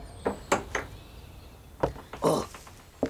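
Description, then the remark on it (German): A door that was only ajar is pushed open with a handful of short wooden clunks and knocks, fairly loud, spaced out over a few seconds with quiet gaps between them and no talking. “Die Tür vom Labenkuchen aus ist ja nur angelehnt. Dann schauen wir doch mal innen.”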